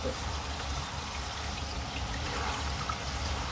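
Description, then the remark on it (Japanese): Heavy rain pours down on a June Sunday afternoon in a steady, dense rush of hissing and splashing water, constant throughout, with no voices or other distinct sounds. “聞こえるかなこのあのいつもの流しの流しのジョボジョボとはまた別のザッバザッバの雨の音”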